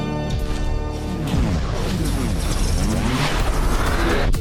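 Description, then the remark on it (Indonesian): A radio studio door swings open with a loud, drawn-out creak: groaning tones bend up and down over a dense, rumbling clatter for several seconds, with no voices. “Pintu studio telah terbuka.”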